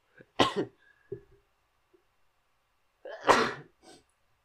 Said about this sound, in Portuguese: Não, não, não perdi a virgindade, que eu lembro-me de já ter espirrado em podcast. Mas nunca curto, é sempre estranho espirrar em podcast.